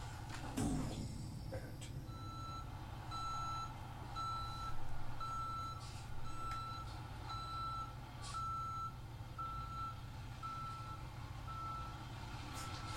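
A large beer truck reverses with a steady run of about ten evenly spaced, high backup beeps over a low, rumbling engine idle, with no talking.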